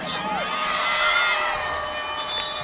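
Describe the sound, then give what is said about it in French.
A crowd of spectators cheers loudly after a rugby third-place match between France and Japan that ended 50 to 49, with high shouts and whoops blending into a sustained roar of excitement. “Le match est terminé, victoire Isarbo 50 à 49 encore un applaudit.”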